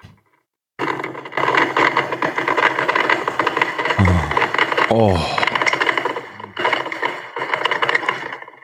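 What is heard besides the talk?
coffee machine running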